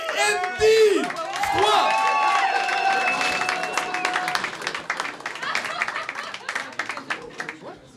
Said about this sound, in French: On fait un tonnerre d'applaudissements pour le premier humoriste